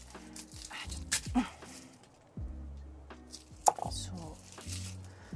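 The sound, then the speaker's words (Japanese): A few sharp, scattered knife taps on a cutting board while small garlic cloves from a Costco bag are being chopped, mixed with a murmuring voice and low background noise. “ちょっと今ガーリックをガーリックをなんかコストコのさ袋でさこういっぱい入ってるさガーリックのやつさこのさかけらがさちっちゃくてやりづらいんだよねちっちゃくてやりづらい”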